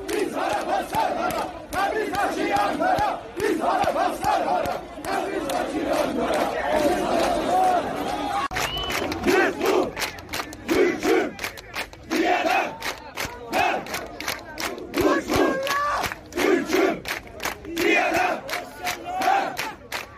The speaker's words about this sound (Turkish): Koca İran Türklüğü hikayesi tarih kitaplarıyla değil, Tebriz'de sansüre baş kaldıran bir futbol takımının ateşli taraftarlarının ben Türk'üm haykırışıyla Türkiye'de anlatılmaya başladı.